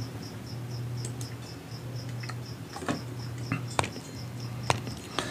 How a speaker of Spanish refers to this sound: es un grillo. Eso no es esta. Yo no tengo grillos aquí, ¿eh?